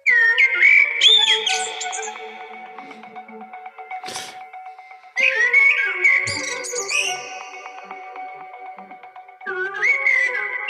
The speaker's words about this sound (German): Weil wir spielen gerade mal die Amsel vor.